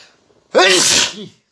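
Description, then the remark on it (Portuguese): A single loud sneeze bursts out sharply and holds for about half a second, trailing off with a brief breathy tail. “Bem na hora que tô tá espirrando.”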